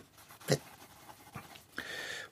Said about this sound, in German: Ich setze mich dazu am besten an den Schreibtisch. So. Also. Stift, Blatt. So. Dann schreibe ich jetzt erstmal drauf ähm, Liste